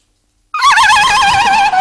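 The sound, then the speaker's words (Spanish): After a moment of silence, a person's voice attempts a horse's whinny, but the loud, wavering call comes out sounding more like a turkey's gobble. “Eso es un guajalote.”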